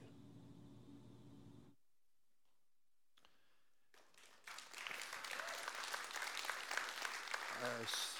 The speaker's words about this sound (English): I assume that's an applaud for me finding that.